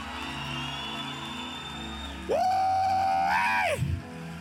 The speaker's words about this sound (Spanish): Vaya alguien de un grito de gloria.